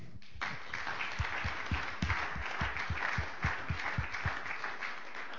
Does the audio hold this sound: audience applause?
yes